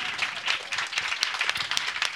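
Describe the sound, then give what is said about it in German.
Steady audience applause, a dense wash of many hands clapping with sharp individual claps popping out irregularly, moderately loud and sustained throughout without any talking. “Ein Applaus für”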